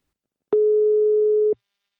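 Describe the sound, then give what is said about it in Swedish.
A single one-second telephone ringing tone, a steady mid-pitched beep heard while a call to the partner company Invacare connects, clear with faint clicks at its start and end, followed by silence. “Nu tar vi en kort paus och ringer upp min samarbetspartner Invacare och pratar med VD”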